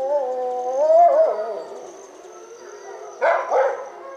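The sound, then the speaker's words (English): A captive-bred wolf dog at a wolf sanctuary in a steep mountain canyon in northern Colorado gives a wavering, rising bark-howl that trails off, then two short, sharp bark-like yelps near the end, with no talking. “You can hear one of these wolf dogs sort of bark howling.”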